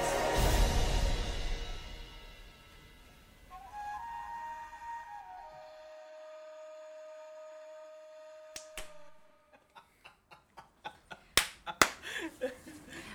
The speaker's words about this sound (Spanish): Bienvenidos a Cesantes Profesionales con esta hermosa intro de aplausos que tuvimos.